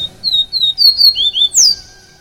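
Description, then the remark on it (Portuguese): A person whistles an imitation of a papa-capim seedeater's call: a quick run of six bright, high chirps in steady rhythm, ending in a sharper descending note, fairly loud with no talking. “Agora eu quero saber que passarinho é esse, Papa Capim. Vou imitar o Papa Capim.”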